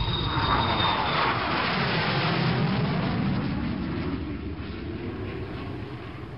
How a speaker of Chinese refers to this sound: 小姐，请您系好安全带，我们的飞机马上就要起飞了。